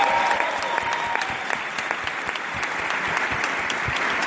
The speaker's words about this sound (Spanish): Y vamos a darles entre todos un aplauso a ellos porque...